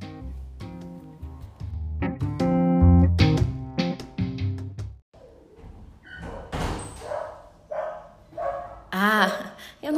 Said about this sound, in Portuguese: poderia deixar de agradecer essa participação super especial durante toda essa edição, os cachorros da vizinha.